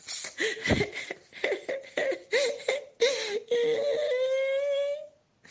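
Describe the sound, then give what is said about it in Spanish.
A voice breaks into acted crying: a string of choppy, gasping sobs, then one long high wail that climbs slightly in pitch before cutting off. “Porque no fabrico miel, dijo Cecilia y comenzó a llorar.”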